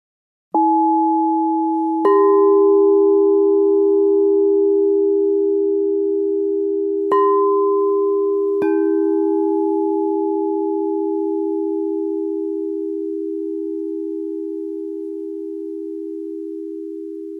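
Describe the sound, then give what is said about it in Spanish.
A quartz singing bowl rings with a pure, sustained tone, struck afresh several times so each new strike layers over the long, slowly fading hum. No voices, just the resonance. “Tanto te he hablado de los cuencos que quiero despedirme con un fragmento de cómo se escucha un cuenco de cuarzo.”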